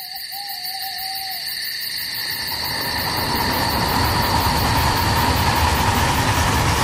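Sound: train passing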